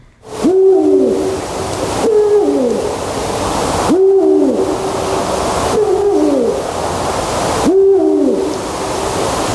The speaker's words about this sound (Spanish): sí, sí ese, ese ulular, ¿no? que es lo que hacen los búhos reales, en este caso es eh, literalmente una onomatopeya que describe esta voz ¿no? del, gran duque